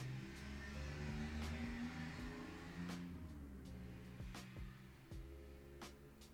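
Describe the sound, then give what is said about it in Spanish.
A loud motorcycle roars past outside a window, its engine droning with steady harmonic tones that swell and then fade, with a few sharp clicks scattered over the rumble. “Gracias moto por pasar afuera de mi ventana todo lo que da.”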